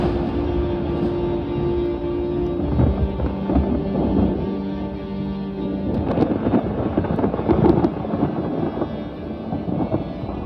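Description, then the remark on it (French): Deep thunder rolls through a storm as lightning strikes the ground, a continuous low rumble that swells louder near the end, with a steady wash of rain and wind behind it and no voices. “quand la foudre heurte le sol.”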